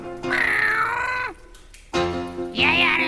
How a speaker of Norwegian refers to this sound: Nå er det katter allerede. da. Hei, du! Puss, kom deg vekk!